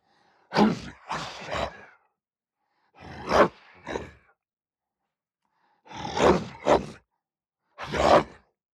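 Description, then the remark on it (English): Four short bursts of a deep, rough human growl made into a microphone, pitched down and slightly distorted with saturation to sound bestial, each lasting about a second with quiet gaps between, fairly loud, no talking. “silly growly noises into a microphone, which I can only do in short bursts because it gives me a sore throat”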